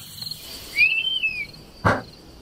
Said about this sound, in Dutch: Dat is de wespendief. Hoe ziet dat beest eruit? Ehm, dat is eh, een buizerdachtige, maar tegelijkertijd ook weer helemaal niet. Die heeft zo'n hele markante kopje. Zo'n klein kopje eigenlijk, met zo'n geel snaveltje.